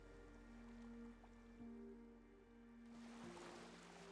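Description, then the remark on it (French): Gentle ocean waves wash onto a beach, a soft surge of surf swelling near the end, beneath a steady, sustained musical drone. No one speaks. “Vous entendez le son de l'eau, des vagues.”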